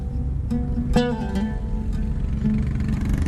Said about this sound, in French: La voiture se dirige à toute vitesse vers le sud de la bande de Gaza.